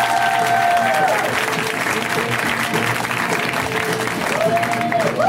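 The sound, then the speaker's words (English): A large comedy-show audience applauds and cheers loudly and steadily for a comedian, with a dense wash of clapping and occasional whoops rising above it. “Let's hear right now for Ahmed Bharoocha, guys. Get up for him.”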